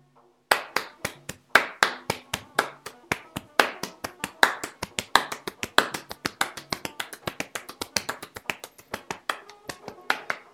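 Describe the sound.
Sharp snaps and claps repeat in a steady, accelerating rhythm as preschool children in kindergarten imitate a train's chugging with repeated body percussion; fairly loud, with faint voices in the background.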